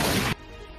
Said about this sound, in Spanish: Sale el disparo, se mete entre medio de las carnes de este animal de 20, tras tablillas se golpea contra los árboles.